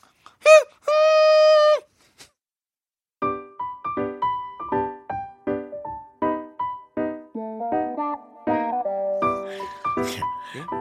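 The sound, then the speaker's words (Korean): A ship's horn gives a brief blast and then a longer, steady, reedy note, loud. After a short pause, an upbeat melodic song with bouncy, evenly spaced notes begins. “네 기적 소리하고 전혀 안 어울리는 노래가 나왔잖아.”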